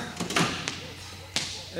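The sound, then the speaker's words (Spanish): A door is shut: a few soft knocks and clatters, then one sharper bang as it closes, with a voice starting to speak right afterward. “Bien, cierro la puerta.”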